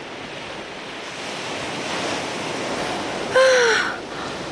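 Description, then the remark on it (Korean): Ocean waves wash steadily onto a beach in a broad, continuous roar, with wind noise underneath; near the end a short bird call, like a gull or crow, cuts through above the surf. “어, 바다로 올 줄은 몰랐어요.”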